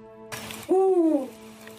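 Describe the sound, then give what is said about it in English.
A single loud, drawn-out owl hoot with a gently rising and falling pitch, lasting about half a second over a steady, faint background hum. “Ah, I know the answer to that one, Mr. Owl.”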